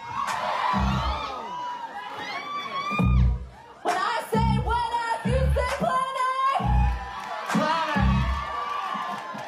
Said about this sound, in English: And the screaming you heard, it's from the crowd during a House of Yes performance